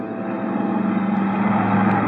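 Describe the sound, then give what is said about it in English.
A steady, loud airplane engine drone from a Coast Guard plane pursuing a supply boat on Lake Superior fills the whole stretch, a constant low rumbling hum with a strong tonal throb and no pauses or voices. “Twenty minutes later, we were in the Coast Guard plane heading out after her.”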